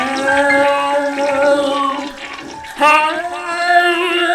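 A toilet flushes with loud rushing water and a steady, high whining tone from the pipes. The rush dips briefly, then surges again before continuing to drain. No one speaks.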